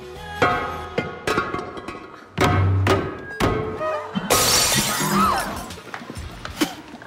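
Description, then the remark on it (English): A series of hard knocks and thuds builds to a loud crash as a maid of honor smashes a ceramic vase on the floor at a wedding, a custom for good luck, with shards scattering and clattering for a second or two afterward. “The maid of honor shatters a vase, and it symbolizes happiness for the bride and groom.”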